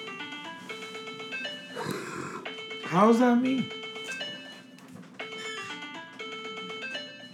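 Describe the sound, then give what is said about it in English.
A melodic phone ringtone plays a repeating tune of bright, stepped electronic notes across the whole clip, while people talk over it and one voice briefly rises louder midway. “That's your phone.”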